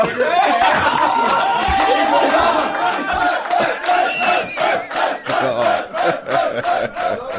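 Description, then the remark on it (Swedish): A group of men roars and cheers together during a bachelor party weekend on learning that Fredrik Wikingsson has paid by Swish, loud rowdy shouting and bursts of laughter that swell and pulse in rhythmic waves. “Lyssna på vrålen.”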